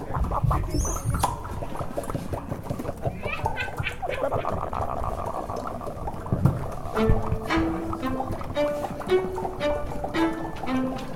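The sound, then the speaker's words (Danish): A crowd of people imitates a bubbling pot with overlapping mouth sounds, a dense, steady stream of blubbing pops and gurgles that holds a fairly loud level throughout, with some hummed tones toward the end. “Og vi tænkte, at øh, det ville lyde rigtig godt, hvis vi kunne få jer til at være med, med til at sige som en gryde, der bobler.”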